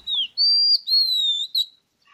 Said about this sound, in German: Auch die Dajaldrossel als Antichrist, als falscher Prophet, als falscher Fufzer sozusagen – hat ein Recht darauf, in Freiheit zu jubilieren, der Vogel der Woche, Oriental Magpie Robin.